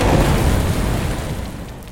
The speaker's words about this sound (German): Rammt der Orca das Boot.